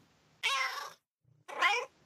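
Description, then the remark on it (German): A kitten meows twice, clear, each cry rising then falling with a short pause between them, with no other sounds around it. “Nun wurde aber das Baby gegen eine junge Katze getauscht.”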